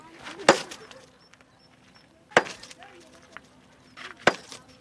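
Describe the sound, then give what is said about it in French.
A 30-kilogram sledgehammer strikes stone three times at a slow, steady pace, breaking it into medium pieces; each blow is a sharp, loud crack followed by a brief rattle of scattered fragments before the next swing. “Mais si c'est fendu, fendu, fendu là, vous voyez, en morceaux comme ça maintenant, nous on prend les gros matos et puis on casse on casse ça moyen, moyen”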